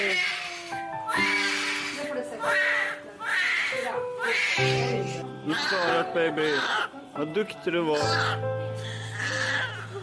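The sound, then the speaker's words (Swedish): A newborn baby cries just after birth in short, high-pitched wails, repeated several times, while adults talk softly over and between the cries. “Varför skriker hon inte?”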